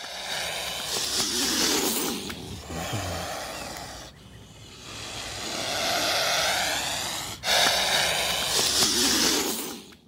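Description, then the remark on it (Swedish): A swan hisses in long, harsh, breathy bursts, three loud rasping blasts with a wheezy, throaty edge, each one swelling and cutting off sharply. No one talks over it. “Markus, kan du hitta ett svanklipp så ska ni få höra hur hemskt de låter?”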